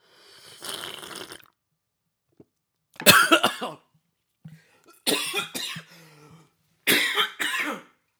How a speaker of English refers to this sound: Oh, uh, it went down the wrong pipe.